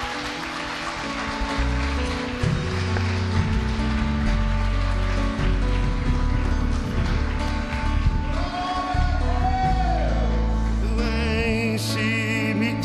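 An audience at a church service applauds Jesus loudly and steadily as their pastor is welcomed, a dense crackling wash of clapping that lasts the whole stretch, with sustained keyboard-like music tones playing underneath.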